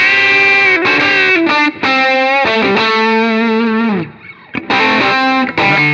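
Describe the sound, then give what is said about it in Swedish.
A loud electric guitar plays sustained chords and notes through a pedal called the Dream, which saturates, smears and compresses it, leaving them buzzing with distortion, in several phrases separated by brief breaks, with no voices. “Ja, det är dreamen som smetar ut och komprimerar nu, men det låter jävligt bra.”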